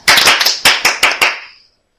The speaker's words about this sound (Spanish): Un aplauso para los oyentes manchados. Un aplauso para el caso de San Juan. un aplauso para el queso manchego un aplauso para las tostadoras.